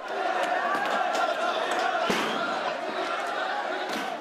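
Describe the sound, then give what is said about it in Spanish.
A dense, agitated crowd protesting against squatters in Fortuna, Spain, shouts and roars continuously, with sharp scattered impacts of thrown stones striking hard surfaces cutting through the din, one especially loud crack midway. “Gritos atronadores, lluvia de pedradas,”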